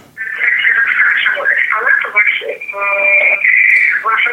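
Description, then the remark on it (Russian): Muffled, narrow-band voices come through a telephone line from a caller's radio receiver playing the broadcast, steady and continuous for several seconds. “Сделайте, пожалуйста, приемник потише.”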